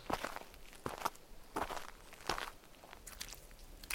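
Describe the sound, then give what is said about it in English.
Steady footsteps walk cautiously through a small town at an even pace, each step landing with a soft, gritty crunch, about six or seven steps with no voices. “I walked through the small town, dead thrashers and humans everywhere.”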